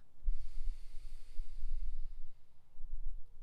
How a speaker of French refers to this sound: Alors j'inspire lentement en conscience et je laisse l'air descendre dans le ventre. Et c'est le ventre qui se gonfle quand j'inspire. Et s'il faut, je, force le ventre à se gonfler. quand j'expire, je lâche. J'inspire.